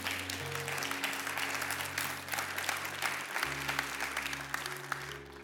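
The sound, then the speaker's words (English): An audience claps steadily, a dense, sustained patter of many hands, while a low organ chord holds underneath and shifts partway through. “You could clap for that one, I think you should.”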